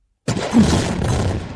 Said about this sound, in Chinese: 爆炸声太大了。天神朝天堂的城墙看过去，大吼：“ 哎哎，这下面过于喧哗！” 炸药掀起了滚滚黄尘，一下子天昏地暗。